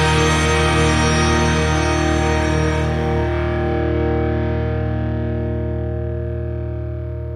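A punk rock song ends on a loud, distorted guitar chord that rings out with dense buzzing harmonics and slowly fades over several seconds, with no singing or drums.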